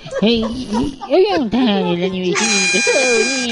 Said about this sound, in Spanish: Es, ese es el timbre de Chabelo.